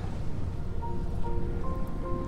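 Steady rushing surf from ocean waves at the seaside, recorded on an iPhone during a live stream of wave sounds while picking up seashells; a dense low roar with no breaks, plus a few faint tonal whistles drifting in over the wash.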